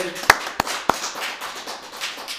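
Three sharp, evenly spaced claps ring out, then blend into a steady, soft wash of audience applause for a dancer that continues at a moderate level to the end.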